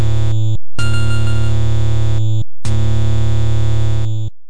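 A loud, harsh chiptune white-noise effect imitating Darth Vader's breathing, made by Tanaka on the audio channel dedicated to white noise; buzzy and distorted, it arrives in two long bursts separated by short silences, rising and falling like mechanical inhale and exhale. No one speaks.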